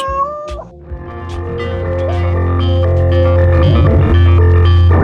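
A cat named Martha gives a short meow near the start, then a steady, throbbing low hum with layered musical tones swells and carries on to the end. No one speaks.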